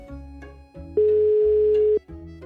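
A telephone ringback tone sounds once, a steady electronic beep of about one second, over a low musical background with no talking, while calling a police expert on romance fraud.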